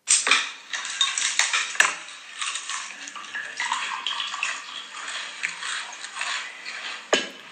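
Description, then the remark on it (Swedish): Beer is poured into a glass, a steady fizzy, splashing gush that runs for several seconds, with a few sharp glassy clinks near the start and one near the end. No one speaks. “Han häller upp då ett härligt glas öl och sen så smakar han av här,”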